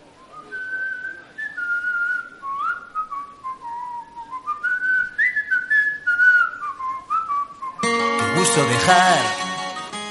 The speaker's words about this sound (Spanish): Y seguimos porque viene silbando, no te lo vas a creer, pero viene silbando